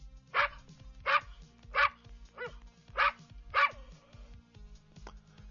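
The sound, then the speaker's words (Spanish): A Border Collie dog barks five times in a steady, evenly spaced series, each bark sharp and mid-pitched, played by Google Assistant on an iPhone, followed by quieter background noise; no one speaks. “Este es un perro de raza Border Collie.”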